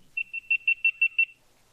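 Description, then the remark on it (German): A GoPro Hero 9 action camera beeps as it powers off by voice command: a quick run of about seven high-pitched electronic beeps at a steady pitch, evenly spaced over roughly a second, with no one talking. “Da macht sie, glaube ich, mehr einen Ton mehr, oder? Genau, da macht sie mehr Töne.”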